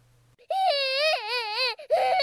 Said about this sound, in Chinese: 哭的声音就是这么奇怪。